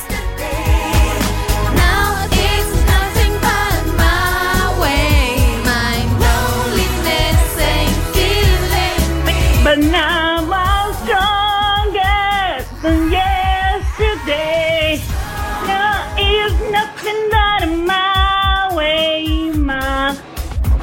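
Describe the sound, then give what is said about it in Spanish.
A pop song plays loud and full, with powerful, belted vocals over a steady driving beat and dense backing instruments that continue without a break. “Es una canción eso, que para una canción fue un himno”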